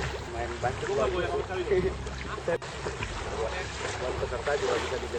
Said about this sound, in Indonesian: 8 Maret 1965, di tengah malam buta, saat air laut tenang, Ketiga sukarelawan itu mendayung perahu untuk mengamati tempat-tempat penting yang akan dijadikan objek sasaran.